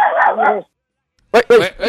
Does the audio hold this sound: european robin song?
no